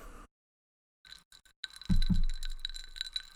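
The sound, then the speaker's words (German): Ice cubes clinking and rattling against a glass of whisky sour, with a few sharp knocks followed by a steady jingling shake lasting a couple of seconds. “Gehört das? Das ist mein Whisky Sour.”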